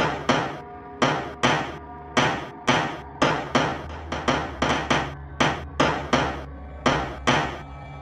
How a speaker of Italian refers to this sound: Così, all'improvviso, qualcosa ruppe il silenzio, qualcosa che sbatteva contro la finestra. Non che picchiettava o bussava, no, proprio qualcosa che sbatteva, rumorosamente, spaventosamente contro la finestra